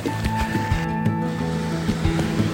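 Steady, full-bodied rush of falling water from a waterfall reached about three and a half miles in, in lightening rain, roaring continuously and evenly throughout with a faint low hum mixed underneath.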